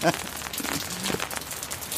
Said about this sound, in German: Der Regen hat auch sein eigenes, ne?